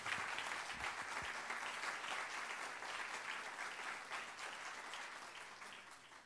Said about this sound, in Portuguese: Você quer aplaudir? Vamos aplaudir direito. Vamos lá.